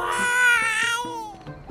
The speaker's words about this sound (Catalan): Estem parlant de dues criatures berrejant, cridant l'altra.